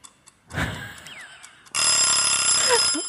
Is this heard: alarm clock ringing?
yes